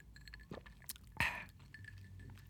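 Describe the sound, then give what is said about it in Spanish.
Quiet sips of boxed sangria from Tarija from a glass with small wet mouth sounds, and one bright clink of glass midway through; no one speaks. “Em, les comento que estoy aquí acompañado de una sangría.”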